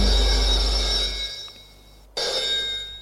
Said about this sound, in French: Deux jours plus tard, elle est à son bureau. Le téléphone sonne.